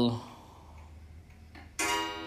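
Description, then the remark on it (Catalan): A clock chimes at home: a ringing tone fades out, then a brighter, louder strike rings out near the end, both with long, resonant harmonics. “Bueno, que sonava el rellotge a casa.”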